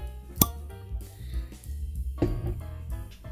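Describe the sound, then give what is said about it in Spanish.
A single crisp, sharp pop of a long cork pulled from a bottle of Trabun Wines blend, rising briefly above steady background music that continues underneath. “Un lindo corcho eh, bastante, bastante largo, lo cual asegura años de guarda.”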